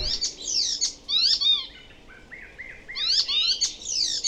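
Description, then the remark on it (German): A songbird sings a varied, mimicking song that includes other birds' voices picked up on its travels: bright, rapid chirps and sweeping whistled notes in bursts, with a softer run of repeated mid-pitched phrases between them, clear and alone. “Und dann bringt er lustigerweise natürlich von seinen Reisen oft auch Vogelstimmen mit in seinem spötternden Gesang, die man gar nicht so kennt.”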